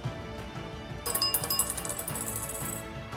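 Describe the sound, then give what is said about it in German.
A small four-sided die (D4) clatters and rattles across a hard surface, a quick burst of bright, clicking tumbles that settles after a couple of seconds, landing on a 1, with no voices. “Ja, dann mach auch mal einen, einen D4-Wurf.”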